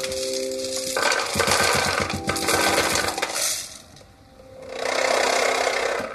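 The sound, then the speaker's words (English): Popcorn kernels rattle loudly inside a metal tin on a vibrating speaker set inside a glass bell jar, a dense, buzzy clatter of rapid percussive ticks that briefly dips, then swells again, with a faint steady hum underneath. “But when I pour the popcorn um, I have here in the tin inside the speaker,”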